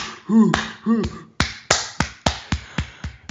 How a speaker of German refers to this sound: Da tobt sofort das Publikum.